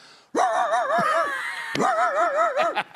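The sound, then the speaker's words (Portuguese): A person imitates the hoarse bark of a farm dog with their voice, making two long, strained, wavering howl-like barks, the second following right after the first. “É um, um, o cachorro rouco da, da roça de minha mãe que faz.”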